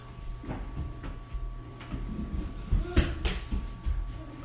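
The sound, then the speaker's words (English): A chair is shifted around, a series of knocks and scraping bumps with one louder clunk partway through, over a low hum and faint background voices. “Take him down and move that chair.”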